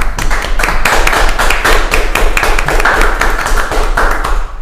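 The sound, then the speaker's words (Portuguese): Steady, loud hand clapping for the couple, a quick run of sharp overlapping claps that keeps an even pace for several seconds with no voices. “E palmas, palmas para o casal, né?”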